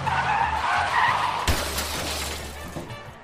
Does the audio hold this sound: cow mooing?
no